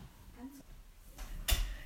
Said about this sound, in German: Ah, warte, es klopft.